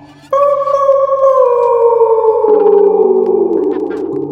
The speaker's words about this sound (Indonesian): Suara anjing melolong.